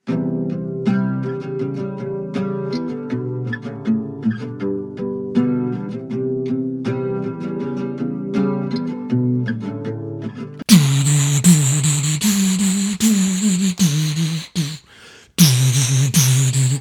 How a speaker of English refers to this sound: So okay, let's listen. Uh, the our beautiful, loving audience of, of one or two uh, listened already to the intro of this song, but I want to listen again, and then we're going to talk about the '90s.